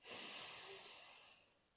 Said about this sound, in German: Ich würde sagen, wir nehmen uns einmal kurz einen Moment und atmen alle gleichzeitig ein und aus. Seid ihr bereit? 3, 2, 1.